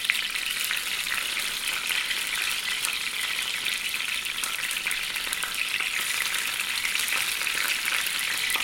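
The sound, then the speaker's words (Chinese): Steady, dense crackling and hissing of food frying in hot oil, a bright continuous sizzle with tiny popping spatters throughout, fairly loud and with no voices. “哎呦，多少还是会溅出来一点。”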